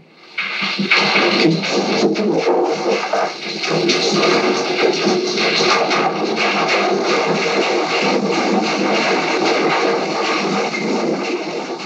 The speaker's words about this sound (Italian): È il suono del terremoto. Durò 90 secondi, un minuto e mezzo. Qualcuno disse che sembrava un bombardamento altri parlarono di frustate violente, ripetute, ravvicinate. E ancora un treno che ti passa sopra, un rombo che ti scuote. 23 novembre 1980,